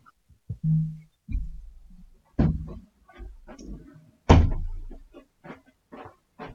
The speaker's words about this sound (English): Uh, just a minute, I'm going to close the door.